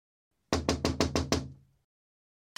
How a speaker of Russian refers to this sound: И тут откуда-то постучали, да. Будем надеяться, что не снизу. Осталось разобраться, откуда.